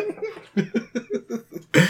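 A quick run of rhythmic, breathy laugh-like bursts ends in one loud, harsh cough. No talking.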